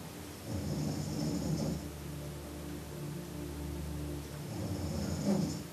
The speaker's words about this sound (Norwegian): Hun ligger i sengen sin og snorker.